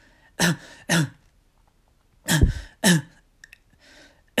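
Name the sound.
imitated coughing fit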